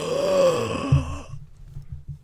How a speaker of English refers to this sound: Gasp!